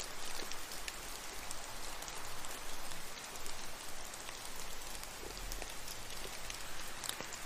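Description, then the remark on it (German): Steady rain patters continuously with a soft, even hiss, sounding somewhat distant and diffuse, with no voices or other sounds breaking through. “Du lauschst dem fernen Regen und spürst die Wärme und Sicherheit.”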